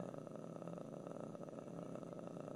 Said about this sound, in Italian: eh, questo è un rutto così delicato che mi addormenterei ascoltandolo. Dovrebbero inserirlo, sai, tipo nel Google Home, riproduci su- suono bianco e ti mettono un rutto.